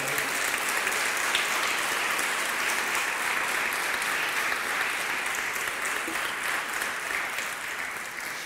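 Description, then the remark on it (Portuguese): A church audience applauds God during a sermon, a steady, dense wash of many hands clapping that holds at an even, fairly loud level for the whole stretch without pausing or building. “você tem decisões para tomar, e você confiando nele, você vai tomar essas decisões corretas, em nome de Jesus, se você crê, dê um aplauso a Ele.”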